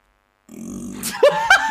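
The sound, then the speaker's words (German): A voice imitates a fart with a sputtering, buzzy raspberry sound lasting about a second, ending in a couple of sharper squeaky bursts, fairly loud, mimicking a fart let out carefully while sitting on a chair in an office. “im Büro, ich saß auf dem Stuhl und dachte, ich muss jetzt irgendwie richtig vorsichtig und leise fahren lassen, weil ich musste so furzen. Und dann ich bin so ganz vorsichtig und dann hört man so”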